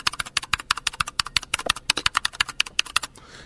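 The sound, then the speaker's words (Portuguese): Rapid, crisp clicking of keys on a mechanical keyboard, a steady stream of sharp keystrokes with a slightly uneven rhythm, ending in a brief soft rustle. “E digitando, como é que mais mostrar?”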